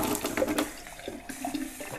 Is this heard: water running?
yes